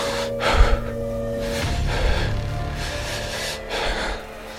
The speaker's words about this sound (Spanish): Y su respiración se hacía cada vez más agitada.